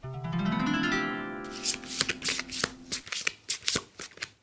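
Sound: shuffling tarot cards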